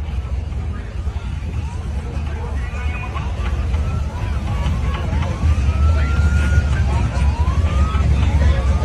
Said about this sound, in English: hear that cop come.